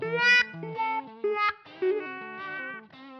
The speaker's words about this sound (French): En modifiant le signal électrique capté par les micros des guitares, on a généré quantité d'effets comme le wah-wah